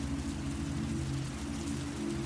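heavy rain pouring

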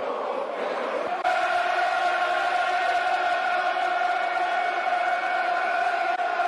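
stadium crowd chanting

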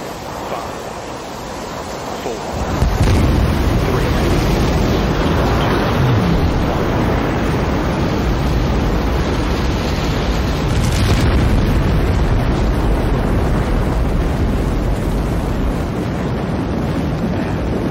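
rocket launch engine roar

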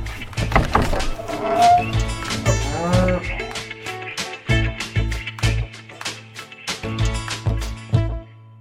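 cows mooing

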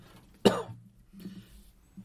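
cough

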